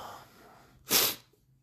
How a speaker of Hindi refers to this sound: जैसा कि मैंने बताया था मेरे को एलर्जिक राइनाइटिस है तो ये अभी एक दिसंबर या दस दिसंबर तक मेरा छींक और जुखाम और ये सब घिनौनी चीज़ें आपको सुननी पड़ेंगी